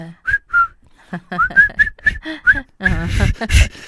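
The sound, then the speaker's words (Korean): Prisoners of war whistle a jaunty march tune together while marching in step, in short, clipped notes with a bouncy, steady rhythm, clear, ending in a louder, fuller burst of sound. “어 해가지고 그때 다 같이 포로들이 휘파람을 불면서 발을 맞춰서 등장을 해요.”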